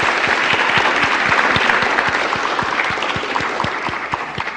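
Steady audience applause fills the whole stretch, a dense patter of many hands clapping at an even, fairly loud level with no voices over it.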